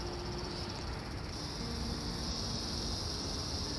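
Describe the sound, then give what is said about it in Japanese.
Steady, continuous cicada droning in the middle of the night at an open square, a dense high-pitched buzz filling the background without pause, moderately loud and unbroken, with no voices. “ちょっとセミの音がうるさいかしら 真夜中なのになんかいつも収録をしている広場があるんですけれど泣き始めちゃって止まらなさそうなのでこのまま収録を続行したいと思います。”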